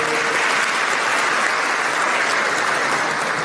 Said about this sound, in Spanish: Gracias, hermano. Sí, le podemos aplaudir, no hay problema.